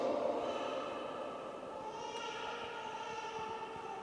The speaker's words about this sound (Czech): Slyšíte to slovo Boží? Slyšíte Boží slovo v tom pláči, který se ozývá ze zadu?